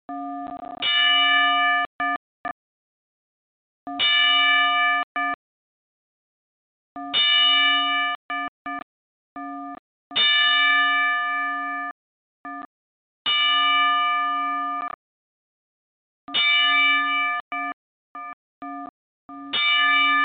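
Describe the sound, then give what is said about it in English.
A boxing-style ring bell tolls a wrestling ten-bell salute in memory of James Beasley, known as the Beast, in a slow, steady series, each bright metallic clang ringing briefly before the next strike a few seconds later, loud with no talking. “And if it's okay with you, we're going to play this 10 bell salute because I think it's only right and it's fitting for uh, this very moment.”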